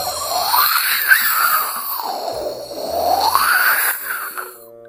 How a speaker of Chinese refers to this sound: 刮大风了，刮大风了！呼！